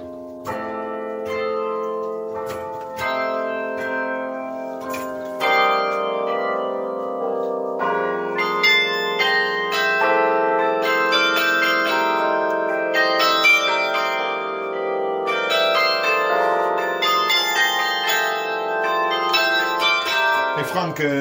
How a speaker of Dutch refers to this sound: we hebben hier het mooiste carillon wereld